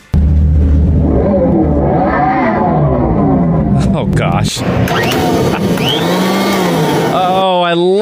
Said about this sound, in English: And I found this TikTok video I was talking about earlier, and they they brought it up, bring it on the red carpet, and they try to rev the engine, and uh, it literally sounds like a vacuum cleaner. I, here, here's a clip from TikTok on this one.